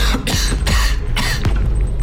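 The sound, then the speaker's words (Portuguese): Several harsh, loud coughs in quick succession form a short bursty fit, with brief gaps between each cough and no talking. “Tosse de novo.”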